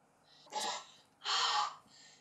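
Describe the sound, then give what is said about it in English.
Two loud, deep breaths: a sharp, airy inhale followed by a longer, fuller rush of breath, with a quiet pause between and no talking. “Okay, but now we want you to breathe in, breathe deeply to confirm that God has healed you from that asthma.”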